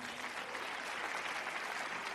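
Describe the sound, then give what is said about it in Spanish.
Steady applause from many hands for two colleagues at an organization gathering, a dense crackling wash of clapping that holds at an even, fairly loud level throughout without pauses or voices standing out. “Fuerte el aplauso para ellos también.”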